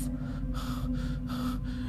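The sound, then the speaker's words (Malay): Frightened, rapid gasping for breath by a woman while driving: three sharp, airy inhalations in quick succession, fairly loud, over a low steady hum, with no one speaking. “Isteri saya sampai tercungap-cungap ketakutan”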